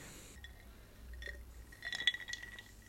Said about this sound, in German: Ah, das klingt aber schon gut mit den Eiswürfeln.